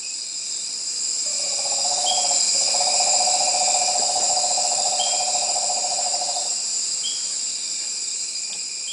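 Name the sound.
nighttime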